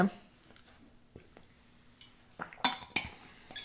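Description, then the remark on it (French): Someone takes a small sip of water: soft handling noises, a faint slurp, then a couple of sharp glassy clinks near the end, with no talking. “Et là, je vais prendre une petite gorgée d'eau parce que je sens que ma gorge est sèche.”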